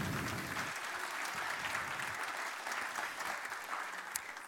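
An audience claps steadily, a dense crackling wash of many hands that stays fairly even in loudness for several seconds, with no voices standing out.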